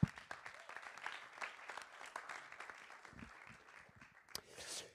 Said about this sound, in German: Vielen Dank, liebes Worship-Team. Hey, so gut. Lass noch einen Applaus geben für unser Worship-Team.